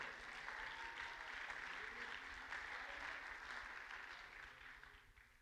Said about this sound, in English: Let's clap our hands unto the Lord.